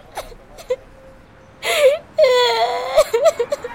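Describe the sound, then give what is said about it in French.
A boy cries and whimpers as he goes from sidewalk to sidewalk, thin wavering wails rising and breaking into sobbing bursts, with short catches of breath between them over about four seconds. “… pleure de trottoir en trottoir.”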